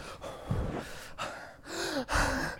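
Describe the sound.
A voice imitates the heavy, nervous breathing of a player about to play a video game tournament match: a quick run of loud, airy gasps and exhales, some with a slight voiced edge, with no speech.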